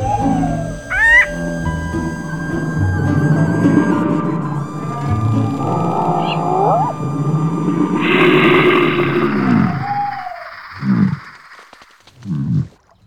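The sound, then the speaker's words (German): American bullfrogs calling with deep, droning, resonant croaks that carry on almost continuously, ending in a couple of shorter low bursts, with faint higher chirps mixed in and no voices. “Und wenn wir nicht immer wieder wegfangen, dann schreit es draußen, dann pfeifen die mit Fegel, sondern die Ochse frisch, die schreit den ganzen Tag. Tag und Nacht.”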